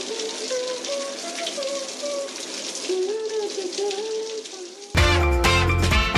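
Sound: running shower water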